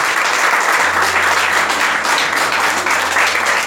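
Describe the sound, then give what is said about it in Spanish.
An audience applauds the Lord at night, a dense, steady wash of many hands clapping at once, loud and sustained throughout, with a low hum underneath. “Si usted cree eso, déle un aplauso al Señor, por favor, esta noche.”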